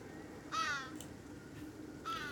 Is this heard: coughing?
no